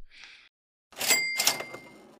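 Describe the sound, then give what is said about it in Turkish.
A brief soft rustle, then a loud, bright bell ding rings out amid a clattering mechanical burst, like an old cash register chiming, fading after about a second. “Evet millet duydunuz zilin sesini”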